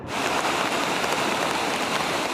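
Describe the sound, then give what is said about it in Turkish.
Heavy rain pours down steadily on the flooded Büyükdere Harbor in a dense, loud hiss with a faint patter of drops, unbroken from start to finish and with no voices. “Büyükdere Limanı sel altında şu anda.”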